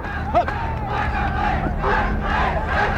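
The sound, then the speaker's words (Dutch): A dense crowd of demonstrators roars and shouts continuously during a riot, clashing with riot police, voices rising in waves of angry yelling over a rumbling background, loud throughout. “De demonstranten.”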